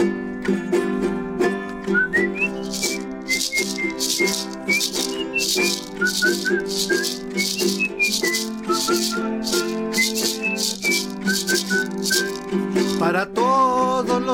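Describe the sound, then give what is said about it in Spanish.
A wavering whistled melody plays over steady, rhythmic maraca shaking, one rattling burst for each whistle, coming at regular intervals throughout. Both sounds are fairly loud, with no talking. “Es por cada chiflido la maraca.”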